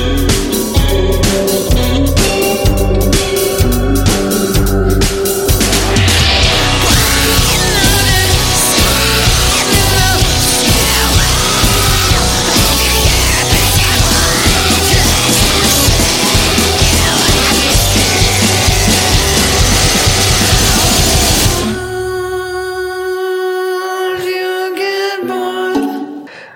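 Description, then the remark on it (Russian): A loud, dense indie rock passage with driving drums and layered guitars plays without vocals, then drops abruptly near the end into a sparser, quieter section of sustained notes. “Вот как звучит песня «…».”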